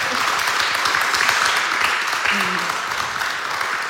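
An audience applauds in a dense, steady wash of many hands clapping, holding at an even, fairly loud level for about four seconds with no clear speech on top.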